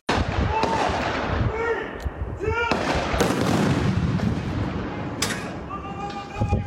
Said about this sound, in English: How does it compare to the thunder we're hearing? It's about that loud sometimes.